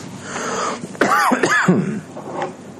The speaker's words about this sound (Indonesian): ini batuk belum hilang-hilang ini batuk dari wukuf di Arafah belum hilang ini Alhamdulillah